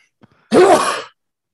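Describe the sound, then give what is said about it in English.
A single loud sneeze erupts, preceded by a faint quick intake of breath, then a sharp voiced burst that trails off into a breathy hiss before silence. “God bless you, Mr. President.”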